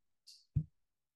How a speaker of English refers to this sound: that was that was the sound of me pushing the button.